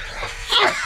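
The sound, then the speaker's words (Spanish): A single sharp sneeze bursts out, a quick breathy intake followed by a loud, hissing expulsion, with no talking around it. “Salud.”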